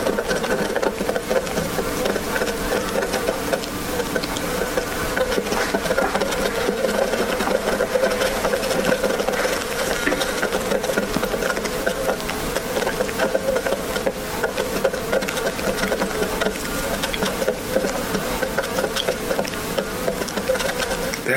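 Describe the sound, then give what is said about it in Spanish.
A dense, continuous buzzing of dozens of fruit flies swarming in a trap, a steady droning hum that holds at an even level throughout with no pauses and no voices. “That's the sound of fruit flies in my trap.”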